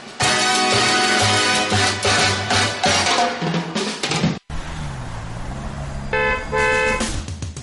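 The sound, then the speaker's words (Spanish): Several car horns blare over one another in a traffic jam, a dense, overlapping din, then after a brief break a low engine rumble carries on as more horns honk loudly in short bursts. “¿Atascada en el tráfico?”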